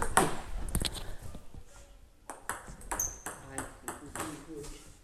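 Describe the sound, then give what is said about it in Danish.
A table tennis ball clicks sharply against a table in a quick, uneven series of bounces, fairly loud, with faint voices in the background; hit with underspin onto the other player's half of the table, the ball bounces back. “jeg fik den over på Randis øh, bordhalvdel, og så var der underskud i, så bolden hoppede tilbage til mig igen”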